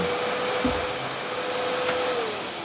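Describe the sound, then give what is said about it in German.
A vacuum cleaner drones loudly and steadily in a workshop, a constant whooshing roar with a humming motor tone that sags in pitch near the end as it powers down when its plug is pulled from the socket. “Aber wieso ist auf einmal der Staubsauger ausgegangen?”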